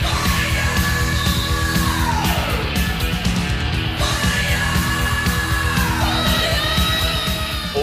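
Loud, dense heavy metal with pounding low drums and distorted guitars, a high voice wailing and sliding in long descending sweeps over the steady driving rhythm.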